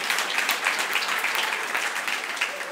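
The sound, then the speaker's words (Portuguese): A crowd applauds the Lord steadily, dense overlapping claps forming a continuous, fairly loud wash of sound with no voices over it. “Então aplauda ao Senhor bem forte.”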